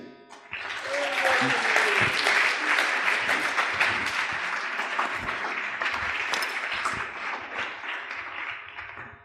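Sustained audience applause, many hands clapping in a dense, steady wash that swells quickly and holds for several seconds, with a few faint voices and cheers mixed in near the start.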